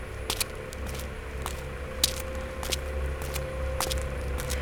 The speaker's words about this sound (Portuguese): Caminhando em direção aos aviões.